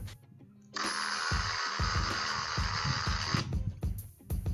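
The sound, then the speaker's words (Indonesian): An airplane's steady, hissing jet roar, loud, holds for about three seconds over a low pulsing rumble, then cuts off abruptly. No one speaks. “pesawat terbang”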